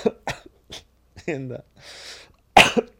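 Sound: coughing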